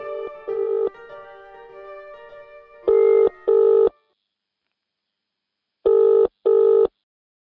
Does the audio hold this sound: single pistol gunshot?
no